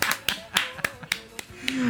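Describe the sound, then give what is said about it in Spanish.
About eight sharp hand claps of applause for a singer's performance, at a steady, fairly quick rhythm, with a faint voice murmuring underneath and a rising tone toward the end. “¡Un aplauso!”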